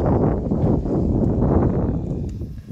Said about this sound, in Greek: Ακούγεται και ο άνεμος, ε.